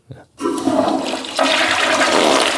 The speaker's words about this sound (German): Das war die Klo-Spielung.